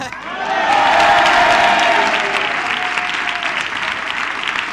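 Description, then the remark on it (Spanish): A crowd claps loudly and steadily, a dense wash of applause mixed with cheering and laughter that swells early and then holds at a slightly lower level to the end. “Pero si esa gente deja de reírse y aplaudir, podemos escuchar lo que está diciendo ella.”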